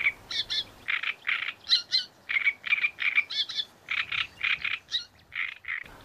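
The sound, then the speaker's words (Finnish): A great reed warbler sings loudly, a continuous run of harsh, grating, frog-like croaks and squeaky notes repeated in a rapid, chattering rhythm with no one talking. “Viikon luontoääni: Rastaskerttunen”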